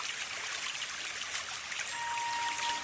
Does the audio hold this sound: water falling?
yes